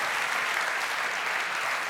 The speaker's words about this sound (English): yeah, if you applaud, applaud for Jesus because he has made it possible. Come on, another round for him.